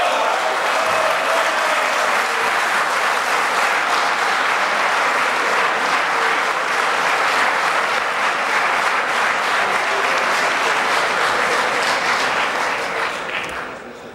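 Sustained applause from a large crowd in the German parliament, a dense, steady wash of clapping that holds at full loudness for about thirteen seconds before beginning to fade at the end.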